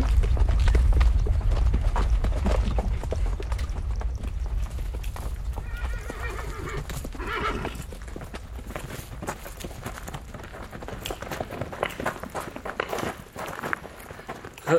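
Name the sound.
horse hooves clip-clopping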